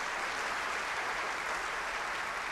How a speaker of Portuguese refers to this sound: Você crê nisso? Então aplaude o Senhor.